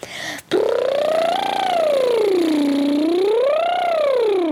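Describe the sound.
A loud lip trill done as a vocal warm-up: a buzzy, fluttering 'brrrr' held for about four seconds while the pitch glides smoothly up and down in two slow waves, with no other sounds around it.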